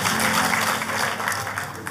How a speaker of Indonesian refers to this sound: Tepuk tangannya buat Tuhan kita yang paling meriah.